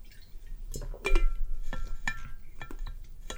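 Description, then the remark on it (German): Quiet clinks of a glass being handled, with faint liquid sounds and soft swallowing noises, as someone takes a quick sip of water; no talking. “Ähm, jetzt mache ich gleich schnell einen Schluck Wasser, falls das was hört.”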